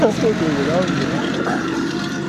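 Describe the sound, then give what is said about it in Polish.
A passing tractor's engine rumbles and clatters steadily at moderate loudness, a continuous mechanical drone, with a voice briefly audible over it at the start. “O, traktor. Jeszcze tego nie mieliśmy.”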